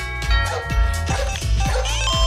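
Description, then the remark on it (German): A dog barks repeatedly in a quick, steady rhythm, five or six sharp barks, with a constant tonal hum running underneath; the dog is barking because the doorbell rang at the door. “Er sagt, ich belle. Ja, ich belle, denn es hat an der Tür geklingelt.”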